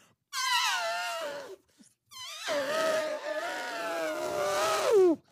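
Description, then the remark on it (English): A baby elephant, just rescued from a reservoir in India, trumpets twice: a short, brassy, falling blare, then after a brief pause a longer wavering call that ends in a high squeal. No one speaks. “a baby elephant was rescued from a reservoir in India. The elephant was so happy it had this to say.”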